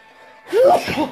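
A single sharp sneeze caused by an allergy bursts out after a brief quiet moment, loud, with a rising voiced onset and a breathy, noisy release.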